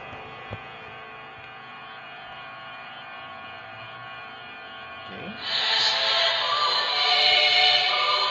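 The theme tune of the anime villain character Pain opens on a low, sustained humming drone of steady tones, then swells abruptly into a louder, brighter wash of sound for its final few seconds, with no talking.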